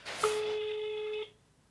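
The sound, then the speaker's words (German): A phone call ringing out over a speakerphone: one steady, buzzy ring tone lasting about a second, heard alone and slightly tinny, then cutting off into quiet. “Die geht bestimmt nicht ran.”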